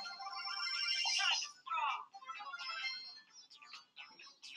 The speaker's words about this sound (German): Ähm, sorry, bei uns klingelt gerade ein Telefon.